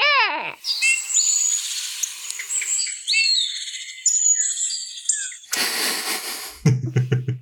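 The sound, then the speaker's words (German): A Eurasian bullfinch gives agitated calls in a state of excitement: a sharp descending note, then a busy run of chirps and whistled notes, clear, ending in a burst of rough noise and crackle. “Wohingegen der Lockruf ein Tschü, Tschü. Und jetzt kommt im Erregungszustand.”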